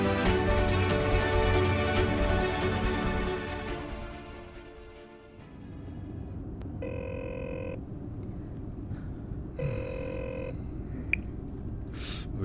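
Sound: phone ringing unanswered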